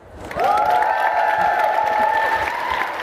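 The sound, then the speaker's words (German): A live audience at FFF Day 2023 in Berlin bursts into applause and cheering after a brief moment when asked to make noise, the dense clapping and shouts holding steady and loud for about three seconds, with a long high-pitched whistle riding over the noise. “Ich würde sagen, Publikum, mach mal Lärm.”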